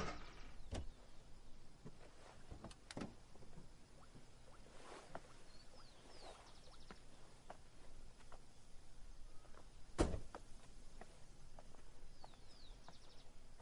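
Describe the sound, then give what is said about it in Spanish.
Quiet clicks and shuffling as a woman climbs out of her small car, stopped at the side of a road, carrying her mobile phone, ending in a firm door thump near the middle, with faint birds chirping outdoors and no voices. “Irene está dentro de su pequeño vehículo detenido al margen de un camino. Sale del coche con su teléfono móvil.”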